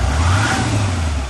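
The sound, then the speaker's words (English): The Cummins V8 turbo diesel engine of a new 2016 Nissan Titan XD pickup truck, rated 310 horsepower, revs loudly, a deep, throaty rumble swelling and holding steady for about a second, with no voices. “This is the sound of the Titan flexing its 310 horsepower muscle”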